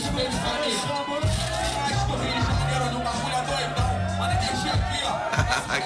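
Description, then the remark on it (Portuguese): A lively crowd at a rap battle roars and cheers continuously, many voices shouting at once over a steady low bass beat, loud throughout. “Deixa eu mostrar um, um, um momento você esculachando o oponente numa batalha e a roda vibrando.”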